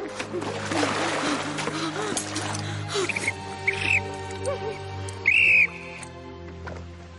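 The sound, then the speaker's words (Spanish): A faint, wavering whistle, taken from a dead officer's mouth, is blown tremblingly by a woman swimming in the water: a few short shaky tones, ending in one louder sustained blast, while water splashes and sloshes and a low hum runs underneath. “Nada con dificultad hasta el oficial que murió con el silbato en la boca. Se lo quita y silba temblorosa.”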